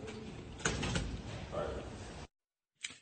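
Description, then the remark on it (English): An elevator door at the Capitol slides shut on Congressman George Santos and an aide with a rough, rumbling whoosh lasting about two seconds, ending abruptly in silence before a brief muffled bump. “and he got into the elevator at the Capitol, and the door closed with an aide.”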